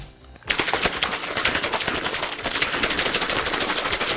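A shaker bottle holding a homemade intra-workout drink of flavourless BCAAs and water is shaken vigorously during training, producing a rapid, steady rattle of sharp clacks that starts after a brief quiet moment and continues loudly to the end, with no voices.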